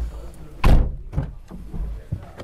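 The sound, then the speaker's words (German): A car door shuts with a loud thunk, followed by a few softer knocks and rustles as someone gets into the car and settles into the seat. “Ich steige ins Auto.”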